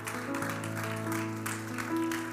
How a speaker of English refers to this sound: Oh, while you're clapping, just shout how much you love the Lord.